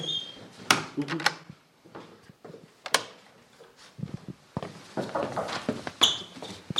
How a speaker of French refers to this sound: ouvre, la porte et ferme-la. Ah, on va prendre le bruit.